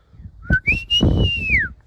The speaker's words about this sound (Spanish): ¿cuál es el silbido que regularmente utilizan tus padres,